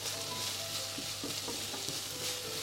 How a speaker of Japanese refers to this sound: 今ねあのすごくいい香りがしてきたので菜の花の茎の方ですね茎の方をまず最初に入れて炒めていきたいと思いますはいいい音がしてきましたね